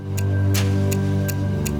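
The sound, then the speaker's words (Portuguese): A clock ticks five times at a steady, even pace, each tick crisp, over a low sustained musical drone. “cada vez que o ponteiro do relógio se move, o prazo para encontrar criminosos foragidos diminui.”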